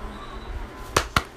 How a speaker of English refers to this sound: Sorry, I just slapped a ball out of his hand. Like full on, like just all you heard was just.